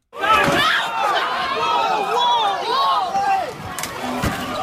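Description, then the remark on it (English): A Black Friday shopping crowd rushes through store doors, many voices shouting and clamoring over one another, with a couple of sharp bangs like doors slamming near the end. “That's Black fucking Friday.”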